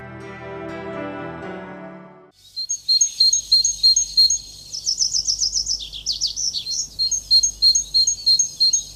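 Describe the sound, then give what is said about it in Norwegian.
After a few seconds of music fades out, a great tit sings alone and clear, repeating bright high two-note phrases in a steady rhythm over a faint low hum. “Det du hørte der, det var en eh, kjøttmeis.”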